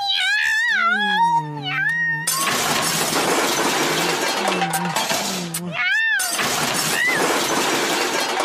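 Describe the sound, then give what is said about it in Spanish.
A cat lets out a loud, wavering yowl, then a burst of shattering and crashing clatter fills the rest, with the cat's cries breaking through the noise twice more. “¡Correte, gata de mierda! ¡Correte!”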